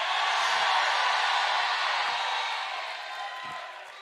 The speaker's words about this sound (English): Come on, y'all scream. You scream for a while. Go ahead, you scream. Go ahead, sister. I give you permission to scream.